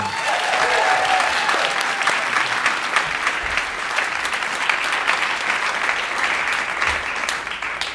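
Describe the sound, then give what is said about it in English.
A crowd applauds Stephen Thompson of the show Pop Culture Happy Hour steadily for several seconds, dense clapping at a constant, fairly loud level, with faint cheers mixed in near the start. “Everyone, give it up for Stephen Thompson.”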